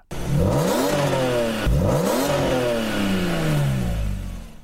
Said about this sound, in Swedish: Ljudet från sexan gick det i alla fall inte att klaga på. Lyssna på det här. Härlig sång på högre varv.